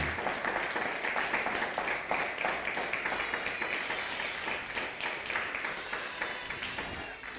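A crowd at a gathering on a cold day applauds steadily for several seconds, a dense crackle of many hands clapping at once that holds fairly even and only eases slightly toward the end. No one speaks over it.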